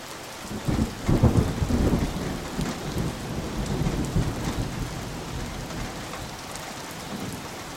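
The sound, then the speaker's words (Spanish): A relaxation recording of a rainstorm played from a website: steady rain pours down while a deep rumble of thunder rolls through, swelling in the first couple of seconds and then easing into a continuous wash of rainfall. “Y la gente que me escucha, no ha llovido, está diciendo ahorita, oye, siempre tengo que andarte apagando tu nota.”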